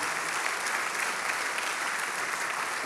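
Steady audience applause, a dense wash of many hands clapping at a constant level for about three seconds, with no voices standing out.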